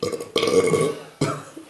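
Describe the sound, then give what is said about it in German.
A loud, croaky burp after drinking carbonated beer, drawn out for nearly a second, followed right away by a second, shorter belch. No talking accompanies it. “Es wird so ein Rick and Morty Podcast, weil das Bier so Kohlensäure drin hat.”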